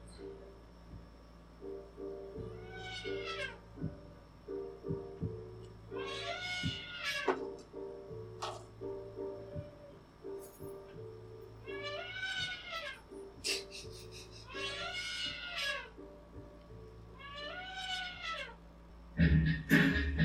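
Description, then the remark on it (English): A cat meows over and over, about six long, drawn-out wailing calls spaced a few seconds apart, loud, with a low steady hum running underneath. “hear that? That's Trump.”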